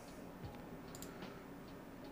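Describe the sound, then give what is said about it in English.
Faint, scattered keyboard typing: a handful of soft, irregular key clicks spread over a couple of seconds against a quiet room hum, with no voices. “I am typing.”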